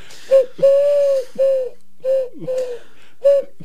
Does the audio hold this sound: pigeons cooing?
yes